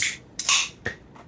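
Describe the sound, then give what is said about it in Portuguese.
A short pop followed by a burst of fizzy hiss, like a can or bottle being cracked open, with a couple of faint clicks trailing after. “Peraí, deixa eu abrir a minha.”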